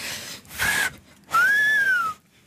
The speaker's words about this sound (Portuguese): mas não, não, não consigo assobiar muito alto, é só assim, baixinho.